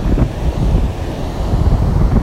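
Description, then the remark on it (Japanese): Steady, close-up rush of surf washing in along a beach at Enoshima, Japan, waves reaching right up to the speaker's feet, with heavy low rumbling wind buffeting the microphone throughout; no one speaks. “今本当にもう足元に波がこう来てもう危ない状況ですけど”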